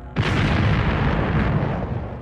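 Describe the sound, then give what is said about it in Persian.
A single loud explosion, shaking a hotel at 7:30 in the morning as an operation against terrorists begins, bursts in sharply after a brief quiet, its deep rumbling roar sustaining and slowly fading over the next two seconds. “ساعت هفت نیم صبح عملیات شروع میشه با یک انفجار دیگه هتل به لرزه در میاد”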